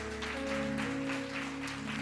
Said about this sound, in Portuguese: Quantos pode aplaudir ao Senhor, meu irmão, essa, essa manhã?